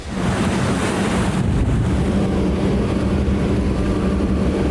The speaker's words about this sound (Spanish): Estamos haciendo un recorrido por la isla Roqueta con elementos de la Secretaría de Marina Armada de México y vamos en esta potente lancha, la Defender, justo para ver dónde está el buque Shenshinda.